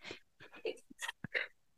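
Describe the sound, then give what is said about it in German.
Someone sneezes after a few quick, breathy catching inhalations; the sharp, noisy bursts come in a short uneven sequence and then stop, with no talking. “Muss niesen.”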